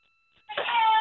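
A cat lets out a single loud, drawn-out meow, rising abruptly after a moment of near silence and holding its whining, crying tone to the end.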